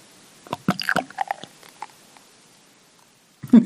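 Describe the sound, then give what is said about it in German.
Beer pours from a bottle into a glass, starting with a quick run of wet, smacking glugs, then settling into a faint, near-silent stream before a short louder clatter at the end. “Das schmatzt am Anfang und danach ist es das so, als würde es im luftleeren Raum einschütten, weil es ist kein Geräusch mehr vorhanden.”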